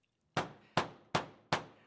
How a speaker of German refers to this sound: Vorsichtig klopfte sie an die Tür.